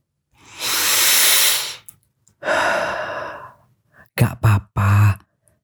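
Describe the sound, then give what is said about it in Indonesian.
A long, deep breath drawn in, followed by a slower exhale, then a few short puffing breaths to finish. No talking alongside it. “Tenang, kalem, tarik nafas dulu yang panjang”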